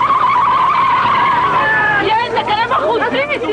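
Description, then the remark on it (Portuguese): A car carrying the mayor's wife speeds off in Guaratuba, its engine whining loudly and tires squealing. An angry crowd chasing it shouts and babbles, swelling over the fading vehicle. “A população revoltada persegue o carro onde está a mulher do prefeito de Guaratuba.”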